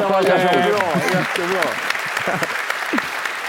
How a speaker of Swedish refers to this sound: Jag tycker om man sitter här och ger en varm applåd.